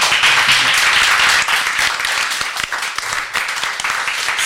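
A crowd applauds steadily, a dense wash of many hands clapping at once, loud and sustained throughout with no voices on top.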